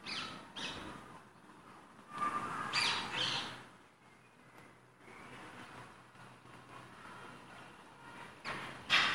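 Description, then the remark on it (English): A few harsh rose-ringed parakeet squawks in scattered bursts, an earlier recording played back quietly at the press of a button, sounding thin over a steady background hiss, with no voices. “The second button plays back my recording from before. Rose Ringed Parakeet.”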